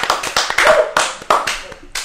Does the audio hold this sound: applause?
yes